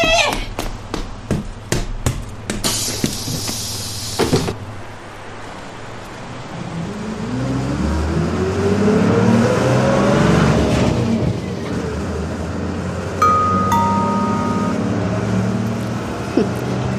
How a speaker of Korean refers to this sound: 버스 왔어요. 저 이거 놓치면 아저씨, 아저씨.